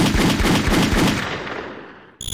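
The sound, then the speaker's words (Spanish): Rapid bursts of loud gunfire as a football defender is shot in Colombia, a quick run of sharp cracks in steady rhythm that gradually fade into a reverberant tail, then a brief new sound cuts in at the end. “el defensor Escobar, quien había metido un gol en contra, fue acribillado a balazos”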